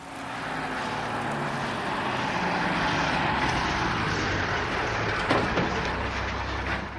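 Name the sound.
bus engine driving off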